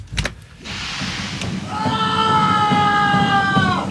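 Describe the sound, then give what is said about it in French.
A man lets out a long, high-pitched scream that holds steady for a couple of seconds, heard over a constant background hiss after a dull thump at the start. “Eh, mais c'est quoi ces cris Oh, regardez par le hublot.”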